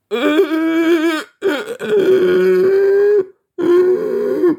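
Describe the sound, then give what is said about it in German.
A person imitates a donkey's bray with three long, strained, nasal vocal blasts separated by short gaps, loud and harmonic with wavering pitch, no words spoken. “dass dieses IA, was die machen, was ich gerade vorgemacht habe”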